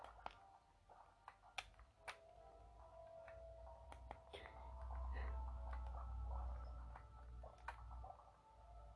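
The player's own character footsteps in the video game Slime Rancher tap out as short, sharp clicks at an uneven pace, set against a low droning rumble and faint tonal game ambience.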